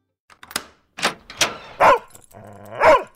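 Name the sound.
dog barking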